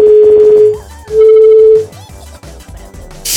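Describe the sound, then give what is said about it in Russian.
A telephone line rings: two long, steady electronic ring tones separated by a short gap, loud as if heard through the handset, followed by a stretch of low background noise. “То ли они разучились уже звонить.”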